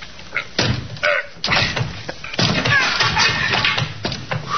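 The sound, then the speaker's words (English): A tenant's locked room door is rammed repeatedly with a shoulder to force it open during a search with a warrant: a series of heavy thuds and rattling bangs, each jolt followed by a creak or splintering crunch as the frame gives way. “Try your shoulder on that door,”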